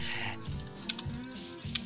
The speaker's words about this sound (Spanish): Ahí está tecleando. Muy bien. esto está bien de tener un ordenador cerca.